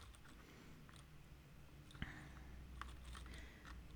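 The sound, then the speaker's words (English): Wooden kitchen matches, made in the USA, rattle and click inside a cardboard box, a loose, irregular scatter of small dry taps, quiet overall with one sharper knock midway. “playing with matches in a cardboard box”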